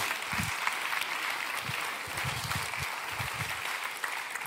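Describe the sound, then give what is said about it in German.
Steady applause from an audience, a dense, even wash of many hands clapping at once, sustained loudly for the whole stretch with a few faint low bumps underneath. “Sie klatschen.”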